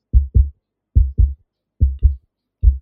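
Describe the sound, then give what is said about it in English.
A steady heartbeat thumps in deep double beats, lub-dub, repeating about four times at a calm, even pace with silence between, no voices. “I want everybody to be so silent you can hear your own heartbeat.”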